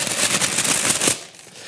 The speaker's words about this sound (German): schwenkt hier gerade ein riesiges Blatt Papier. Das heißt, er hat tatsächlich eine Papierzeitung.